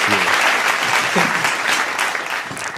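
Sustained audience applause honoring a guest's March 15 award, a dense wash of many hands clapping, fairly loud and steady throughout, with a few faint voices mixed in beneath it.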